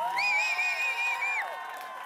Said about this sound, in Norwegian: Få en stor applaus til for den fantastiske Vegard